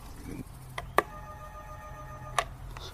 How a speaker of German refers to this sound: Auf dem Namensschild steht schon mal der richtige Name und ich klingel mal.